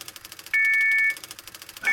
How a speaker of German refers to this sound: Äh, die Glocke. Das ist unsere Börsenbimmel. Börsenbimmel? Immer wenn sich gerade ein Faktor für die Preisbildung unserer Backwaren ändert, bekomme ich hier über unseren Ticker eine Nachricht und dann geht die Börsenbimmel los